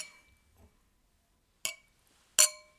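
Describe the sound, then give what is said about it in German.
Wine glasses clink together twice in a toast, two bright strikes less than a second apart, each leaving a short ringing tone that fades. No one speaks. “Ich sipp noch kurz einen Schluck Wein. Alle zusammen nochmal.”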